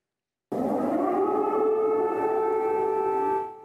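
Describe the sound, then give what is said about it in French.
An air raid siren wails at night in Kyiv, Ukraine, during the war, steadily at full strength: a sustained mournful tone with layered harmonics that holds for about three seconds before beginning to fade, with no voices present. “De nuit, les sirènes résonnent à Kiev.”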